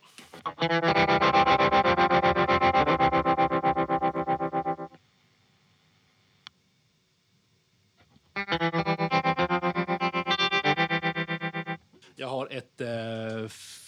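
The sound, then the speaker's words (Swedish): A sustained, distorted instrument chord chopped by a fast, pulsing helicopter tremolo, played loudly for about four seconds, then after a pause a second choppy burst, with a short voice-like sound at the end. “men jag har ett eh, helikoptertremolo.”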